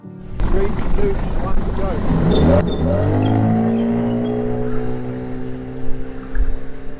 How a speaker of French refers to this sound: Vernon teste les hélices et les ailes de son nouveau moteur hors-bord. Nous chronométrons le temps pour atteindre le point de planage et comparons les vitesses pour avoir le système le plus optimal.